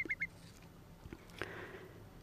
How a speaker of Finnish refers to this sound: Pikkukuovin pilittävä hälytysääni on soiden päällimmäisiä ääniä